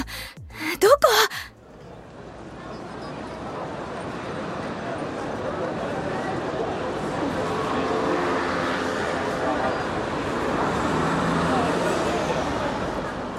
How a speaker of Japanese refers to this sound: 住宅街の先は交差点になっているこの時間は車の往来が激しい